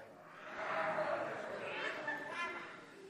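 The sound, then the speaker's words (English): A crowd of people imitates tiger roars all at once, a loud, sustained wash of overlapping growling voices lasting a few seconds, with some shouts rising above the mass. “How about any t- any tigers out there?”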